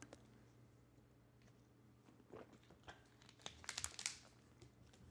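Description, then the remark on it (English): Plastic water bottle crinkling in a cluster of sharp crackles near the end as someone takes a sip of water, after a few seconds of quiet low hum, with faint handling noises and no talking. “I'm gonna take a sip of water before I do this.”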